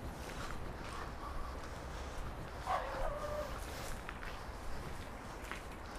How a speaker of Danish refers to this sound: Der er en hund.